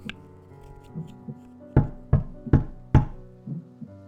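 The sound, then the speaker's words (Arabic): A loud, pounding heartbeat, with softer beats building into four heavy, close thumps in quick rhythm, then fading again, all over a low steady hum. “صوت النبض عالي وبعدين صوت خربشة واحتكاك زي ما تكون حشرة عملاقة بتحاول تخرج من الشرنقة بتاعتها”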